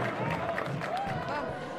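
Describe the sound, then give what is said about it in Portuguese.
A crowd at the close of a rally in defence of democracy in a packed Anhangabaú claps and cheers in a steady, dense wash of applause that holds at an even loudness throughout, with voices calling out among the clapping. “Na salva de palmas, não é ideia nenhuma.”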